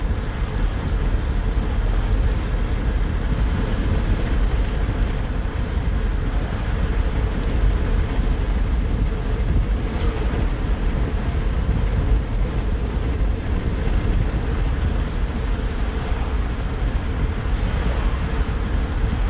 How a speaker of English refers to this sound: So, uh, as the traffic goes by, I'm not going to speak for 20 seconds.